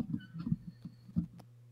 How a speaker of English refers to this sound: I'm getting a lot of static on your end. Static? Yeah.